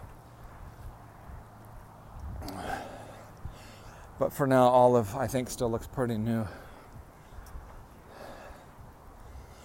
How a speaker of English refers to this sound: Walking up a hill. I'm breathing hard. I am excited to talk to you today, but the main reason I'm breathing hard is because I'm walking up a hill with the uh, Zizek Slovapi puppy